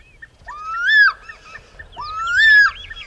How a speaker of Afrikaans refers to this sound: Hy kyk op en daar sien hy 'n groot voël. Die voël swiep reguit in sy rigting